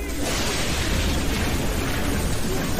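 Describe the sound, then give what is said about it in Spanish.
A loud thunder crack from a strong lightning strike bursts in after a brief moment and rolls on as a dense, sustained roar, followed by a creak of metal, by a parking lot at a merendero in Fraccionamiento Santa Anita, with no voices heard. “fuerte relámpago, seguido de un crujido de metal”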